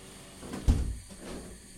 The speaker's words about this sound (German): Ich, äh, ich mach mal eben das Fenster zu.